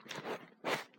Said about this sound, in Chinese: 不好意思啊，这是我吃话梅的声音。嗯，嚼完了。